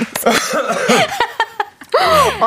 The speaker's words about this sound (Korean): 아무것도 안 먹었는데 사례가 걸리네요.